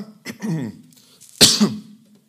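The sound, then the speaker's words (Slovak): A single sneeze close to the mic during a live broadcast: a brief voiced intake, a pause, then a sharp, loud, hissy burst that trails off into a short voiced tail. “tak ste počuli môj kých v priamom prenose.”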